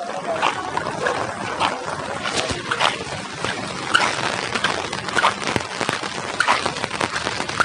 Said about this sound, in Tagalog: At hindi pa rin tumitila yung ulan mga kasinigami medyo bahain kasi dito sa lugar namin eh buti nakapagtaas na kami mga kasinigami yung naririnig nyo yung patak ng ulan